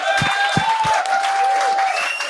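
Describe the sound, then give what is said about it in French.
Loud, steady audience applause fills the whole moment, a dense wash of many hands clapping with a few shrill whistles ringing through it. “On l'applaudit, un héros.”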